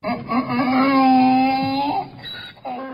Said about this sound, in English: That's the sound of a donkey.